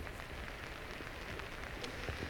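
Steady rain pours down in a dense, continuous hiss, with scattered drops pattering on a surface throughout, in Sabará, in the metropolitan region of Belo Horizonte. No voices are heard.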